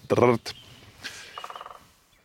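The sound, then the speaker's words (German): A great spotted woodpecker drums on a huge dead beech, about 200 years old, in a nature reserve: one quick, even burst of about nine knocks, following a brief voice near the start. “das Trommeln ist der Gesang der Spechte.”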